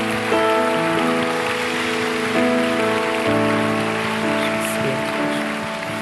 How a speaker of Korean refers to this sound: 우리 우리의 삶의 주인 되시고 우리의 인생의 목적 되시고 우리 삶의 유일한 왕 되신 우리 예수 그리스도께 우리 한 번 더 감사와 영광의 박수 한번 올려드릴까요?